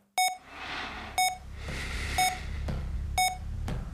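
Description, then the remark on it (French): A medical monitor in a hospital room gives short electronic beeps about once a second, a steady pattern of four over a constant low hum and room noise, with no talking. “En plus du petit bruit des appareils médicaux,”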